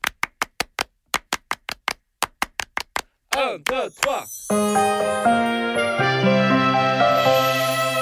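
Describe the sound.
Crisp, close hand claps beat out a quick rhythmic pattern in bursts for about three seconds, then a voice calls out a short count and music swells in.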